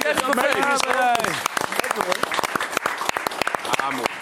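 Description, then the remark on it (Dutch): A small group claps with sharp, scattered hand claps continuing throughout, while a voice talks and exclaims over the start of the applause. “Hier, en met een applausje lijkt me allemaal.”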